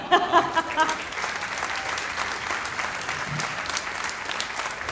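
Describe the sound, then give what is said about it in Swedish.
A live audience on board the ship Silla Galaxy during the Raw Comedy Cruise breaks into steady applause for a question. Dense clapping fills the space for several seconds, with a brief voice at the very start before the clapping takes over. “Applåder för den.”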